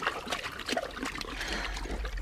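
A horse standing in the sea at the waterline drinks, with wet slurping and sloshing in quick irregular gulps over a steady low rumble; no one speaks.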